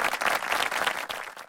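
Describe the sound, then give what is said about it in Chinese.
A class of students applaud together to welcome a new classmate, a dense, steady patter of many hands clapping at once, fairly loud and fading slightly toward the end, with no talking over it. “各位同学，这是我们班上的新同学，大家掌声欢迎。”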